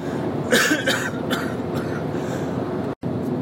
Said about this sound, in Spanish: bueno, he parado para toser y se ha cortado el, podcast